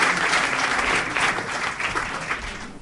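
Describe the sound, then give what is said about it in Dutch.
An audience applauds a prize-winning non-fiction author, clapping steadily for about three seconds, a dense, even wash of many hands with no voices on top, fading slightly toward the end. “En ja, u mag ook een applaus geven aan haar.”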